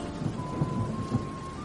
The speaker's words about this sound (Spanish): Un día, nuevamente, una tormenta azotó su casa. Los rayos caían fuertemente, los truenos retumbaban en los cielos.